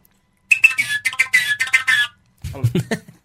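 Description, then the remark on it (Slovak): A folk whistle made from a hollow piece of wood, blown through a small hole, imitates a tit's call with a quick run of high, bright chirping notes for about a second and a half, followed by a brief burst of lower, voice-like sound. “čo, to sa dá ešte normálne vtáčiky napodobňovať na nej, zaujímavé. Sikorka.”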